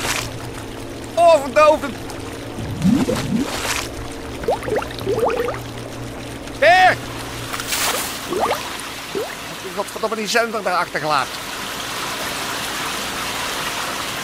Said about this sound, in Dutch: Jezus, wat, wat is dat voor een geluid? Dat lijkt wel alsof er een complete schelde die tunnel binnen gut.